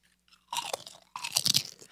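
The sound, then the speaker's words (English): Cheesy, slightly spicy crunchy snack being chewed: two bursts of loud, crackly crunching with bright, gritty texture, separated by a short pause, with no talking. “Yeah, should I eat another one?”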